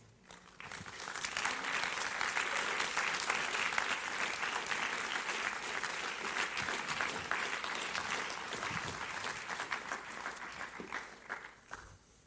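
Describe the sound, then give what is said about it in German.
A steady burst of warm audience applause as guests come onto the stage, dense clapping from many hands that swells quickly, holds for about ten seconds, then tapers off at the end. “Es wäre schön, wenn du ihnen, sie auf die Bühne kommen, ganz einen warmen, herzlichen Applaus gibst.”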